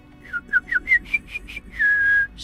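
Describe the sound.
A person whistles an imitation of a yellowhammer's song: a quick series of about seven short rising notes followed by one long, drawn-out whistled tone, clear.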